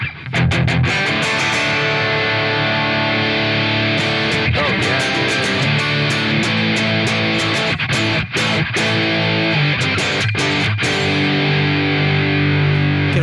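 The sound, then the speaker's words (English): A heavily distorted metal guitar tone plays loud and continuous, thick with saturated harmonics, chugging in tight palm-muted bursts with brief sharp stops between riffs, no voices present. “And then, of course, I've got this presence and resonance, and this is where we get, we things will get much more metal.”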